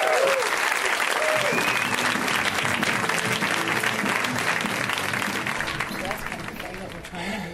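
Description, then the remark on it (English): A crowd bursts into sustained, dense applause as comedian Brendan Walsh is introduced and comes out, a steady wash of many hands clapping at once, with a few whoops and voices mixed in before it slowly starts to ease off. “Guys, give it up for Brendan. Come out.”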